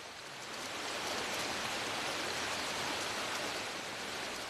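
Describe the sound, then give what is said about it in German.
A mountain brook in a mountain forest flows steadily with a constant, even rush of water, moderately loud, with no voices or other sounds over it. “wenn hier der Bach verbaut wird und sich hier die, die Luftfeuchtebedingungen verändern, dann kann es sein, dass die Art verschwindet.”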